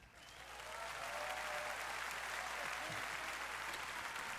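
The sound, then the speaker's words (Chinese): An audience applauds steadily, a dense wash of clapping that swells in over the first second and holds at an even level, with no voices over it. “好的，谢谢大家的掌声以及肯定哦。”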